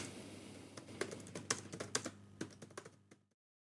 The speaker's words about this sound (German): Immer wenn einer im Hintergrund tippt, denke ich, die, der BND macht Notizen oder sowas.